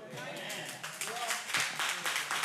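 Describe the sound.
Scattered audience clapping, a steady, dense patter of hand claps over a couple of seconds, with murmuring voices mixed in underneath.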